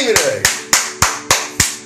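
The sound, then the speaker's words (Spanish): Six crisp, loud hand claps in a steady, even rhythm, each a sharp bright smack that fades quickly, with a faint murmur of voice underneath. “¡Aplausos para ti,”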